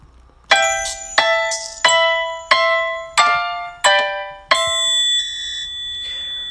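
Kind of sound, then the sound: background music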